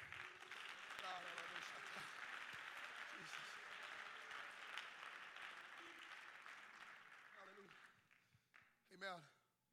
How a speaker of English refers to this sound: we clap our hands to the Lord today?